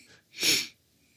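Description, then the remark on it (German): A single sneeze bursts out fairly loud, a short breathy blast lasting under half a second, with quiet moments on either side and no talking. “Sie niesten und dann. Ja, dann war alles weg.”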